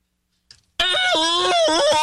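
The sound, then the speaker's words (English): A person lets out a loud, sustained scream for a staged news report, its pitch wavering and dipping, following a brief soft noise and a moment of silence. “Yeah, you, you do some screaming.”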